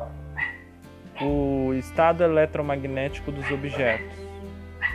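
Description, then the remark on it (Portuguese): Dogs bark in a run of short, sharp yelps behind a man who keeps talking, the barking moderately loud over the steady speech. “Me desculpe pessoal, tem uns cachorros latindo aqui.”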